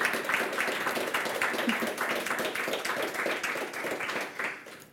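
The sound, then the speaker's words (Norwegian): An audience applauds a discussion panel, many hands clapping in a dense, even patter that holds for several seconds before thinning and fading out near the end. “jeg syns vi skal gi en liten applaus til panelet.”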